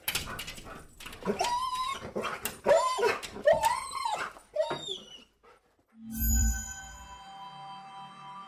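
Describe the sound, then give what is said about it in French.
The dog Croque-Dur whimpers in a run of high, wavering whines for about five seconds while scratching at a door, before a low thump and a sustained ringing tone take over. “Croque-Dur se met alors à gémir en grattant à la porte.”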